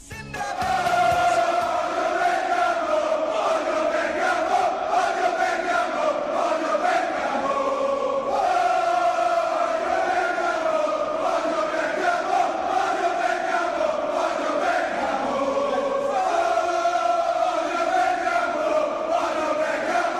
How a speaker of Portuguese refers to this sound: Então vamos ouvir a torcida do Milan cantando direcionadamente aos de Bergamo, aos do Atalanta.